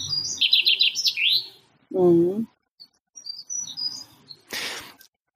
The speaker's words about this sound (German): Wir hören gerade wieder dieses Vogelzwitschern. Mhm und du hörst es auf deine Art und Weise. Und ich höre es auf meine Art und Weise und äh, andere Tiere hören vielleicht unterschiedlich das, was dieses Zwitschern sein mag.